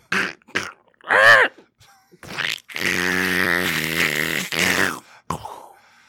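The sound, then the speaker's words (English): A man's voice imitates a duck going into a wood chipper: a few short quacks, then a long, strained, harmonic squawking and grinding wail, ending in sputtering noises, loud. “Somebody has asked me to do the sound effect of a duck going into a wood chipper.”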